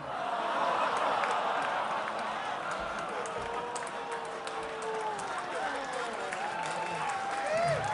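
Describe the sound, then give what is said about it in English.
A large crowd cheers and claps nonstop, many voices shouting and whooping over steady, scattered applause that stays loud for the whole stretch. “Hey, wild crowd.”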